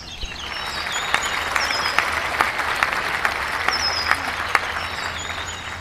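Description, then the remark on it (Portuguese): Applause sound effect from a soundboard: a steady burst of many hands clapping, dense and crackling at moderate volume for several seconds, with no voices over it. “Olha só, até os meus botões do tipo Camela estão aplaudindo.”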